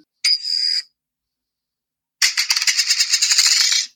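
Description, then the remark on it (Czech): A bright metallic ring sounds briefly, then after a short pause a rapid series of tinkling, rattling clinks follows, like a coin spinning and settling, from a coin flip app with its sound turned on, fairly loud with no talking. “Coinflip, aplikace, zapínám zvuk, aby si slyšel, jak to cinkne no.”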